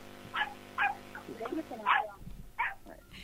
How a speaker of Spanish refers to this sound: tuvo que ir a separar una pelea de perros de urgencia